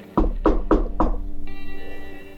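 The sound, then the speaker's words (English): Four firm, evenly spaced knocks on a wooden bedroom door in the morning, loud, followed by a soft sustained musical tone with a gentle pulsing tremble. “as he is interrupted from his morning in the Lonely Chord as there is a knock that comes at his door.”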